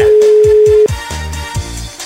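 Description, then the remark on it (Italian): A telephone ringing tone sounds as one steady, loud pitched burst lasting under a second, layered over a thumping music beat that carries on after the tone cuts off. “Ultimo squillo.”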